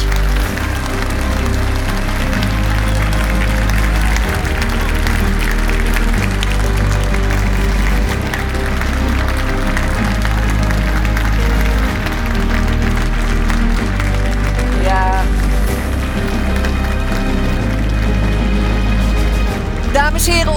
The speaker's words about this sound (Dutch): Geef ze nog een daverend applaus.